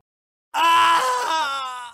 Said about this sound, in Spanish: un grito de dolor desencajado. El rostro del muchacho aparece en pantalla, sudoroso, nervioso, asustado hasta límites inconcebibles.